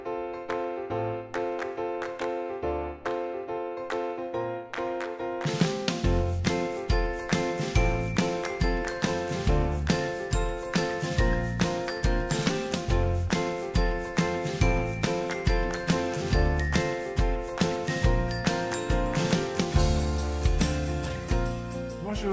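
A short instrumental opening theme of a French show about VAE (validation of acquired experience) opens with a few seconds of soft, sustained melodic tones, then a steady percussive beat kicks in and the bright, upbeat music carries on at full volume with no voices.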